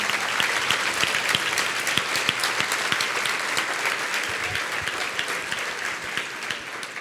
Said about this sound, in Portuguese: Você pode aplaudir Jesus mesmo, é para ele isso aqui.